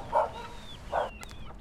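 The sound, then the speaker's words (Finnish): Two dog barks, spaced almost a second apart, over a steady outdoor background hiss, with faint high chirps in between. The dogs are abandoned dogs living on Guarani community land in northern São Paulo, Brazil. “Koiria on suunnilleen saman verran. Ne ovat hylättyjä ja päätyneet guaranien tiluksille asumaan.”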